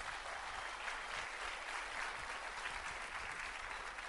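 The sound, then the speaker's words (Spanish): Steady, dense audience applause fills the whole stretch, many hands clapping at once in an even, continuous wash with no pauses and no voices standing out above it. “Sigan aplaudiendo.”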